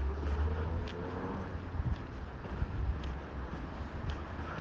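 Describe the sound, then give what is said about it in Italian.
Church bells toll at a steady pace, about one strike a second, faint beneath a constant rumble of wind and outdoor background noise. “oh, le campane, sentite che bello.”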